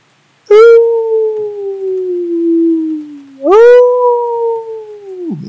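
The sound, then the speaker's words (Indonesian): A pack of large black wolves attacking a shepherd's goats gives two long, mournful howls one after the other, loud, each held for several seconds and sliding slowly downward in pitch before trailing off. “Melonglong serigala itu lalu mencakar mencapik-capik kawanan kambing-kambing yang dibawa oleh si pengembala.”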